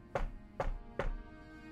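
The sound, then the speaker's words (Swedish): Three firm knocks on a door, evenly spaced about half a second apart, each a sharp rap with a hollow thud, clear with no voices. “det knackar på dörren.”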